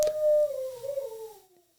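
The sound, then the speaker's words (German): A female dog lets out a single drawn-out, agitated howling whine, its pitch wavering and then sliding downward before fading, fairly loud with no one talking. “Der Hund, will, die Hündin will nicht ran, augenscheinlich, sonst wäre sie jetzt nicht so aufgebracht.”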